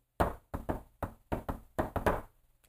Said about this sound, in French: Ça, c'est le, bruit en tam-tam quand on fait du djembé pour dire, OK, on change de beat. Pra, pa, pa, pa, pa, quelque chose comme ça.